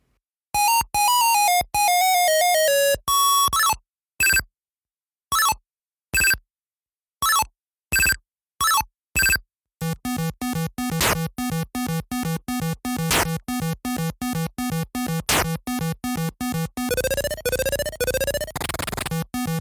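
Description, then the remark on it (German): Bright, beepy chiptune start music from an Atari 2600 video game, starting with rapid descending tones, then staccato blips separated by silences, before a fast, buzzy repeating tune takes over. Loud and clear, no voices. “Und jetzt mal die Startmusik, dann gehen wir auf die Lianen-Stage, auf die Krokodil-Stage, auf die Felsen und dann auf die Kannibalen- bzw.”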